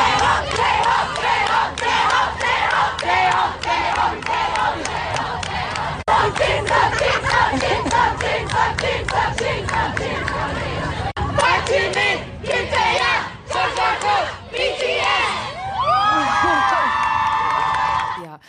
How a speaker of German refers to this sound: Und es war total süß, weil es wurden die ganze Zeit die Namen von den Jungs gerufen. Die haben irgendwelche Songs gesungen mhm. und so weiter, irgendwelche Fanchants und so, um die Zeit zu überbrücken.